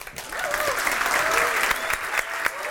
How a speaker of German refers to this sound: Applaus Nummer drei.